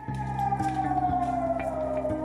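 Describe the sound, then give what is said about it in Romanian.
A loud, sustained air raid warning siren in Israel wails steadily, its pitch sliding slowly downward, with a low droning hum and faint rhythmic pulses underneath; no one speaks. “După 11 zile de tiruri cu rachete venite dinspre fâșia Gaza, israelienii s-au trezit joi fără sunetul obișnuit al sirenelor de avertizare care să-i trimită în adăposturi, doar că liniștea n-a durat decât 8 ore.”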